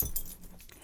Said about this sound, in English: And if you hear jingling in the background, it's because my dog has decided to make an appearance and jump on my bed. Hi, Shiloh.